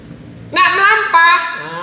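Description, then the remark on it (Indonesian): A man's voice imitates a car engine straining at half clutch on an uphill road: a loud, buzzy drone in two swelling pushes that fade into a low murmur. “Nek ngangge mobil kan tinggal setengah kopling.”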